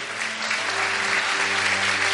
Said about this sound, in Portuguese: Os irmãos do DF, tem algumas igrejas representadas. Vamos dar uma salva de palmas para eles, irmão.